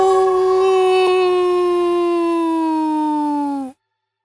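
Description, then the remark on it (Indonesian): A single long, loud dog howl at night holds a steady, mournful pitch that slowly sinks for almost four seconds, then stops abruptly into silence. No one speaks. “Tolongan anjing semakin sering Andre dengar.”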